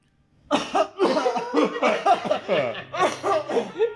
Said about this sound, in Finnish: Nyt kannattaa yskiä.